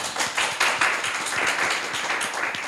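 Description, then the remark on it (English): A crowd applauds steadily as guests are introduced, a dense wash of many hands clapping at once that holds at an even, fairly loud level throughout without any voices. “Big round of applause, please.”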